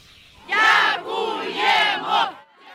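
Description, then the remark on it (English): A crowd in Kherson, Ukraine, celebrates after occupying Russian forces withdrew in November, cheering and shouting together in loud, rising swells, several voices chanting in unison with brief dips between bursts, then quieting at the end. “The sounds of celebration were soon replaced by this the new tyranny of Russian artillery.”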